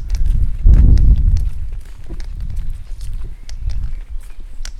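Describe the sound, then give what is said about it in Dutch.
Footsteps walk over cobblestones toward Keienberglaan at a steady pace, each step a crisp, hard click, with a low rumble of wind or handling noise underneath and no talking. “Nu lopen we op keien.”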